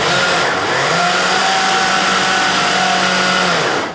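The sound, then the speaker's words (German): A blender works olive oil into a basil pesto made with Parmesan and pine nuts, with a loud, steady motor whine and low hum that holds unchanged for about four seconds, then cuts off at the end. No one speaks. “hier bei unserem Pesto werde ich jetzt das Olivenöl nochmal einarbeiten. Da wird es nochmal kurz laut.”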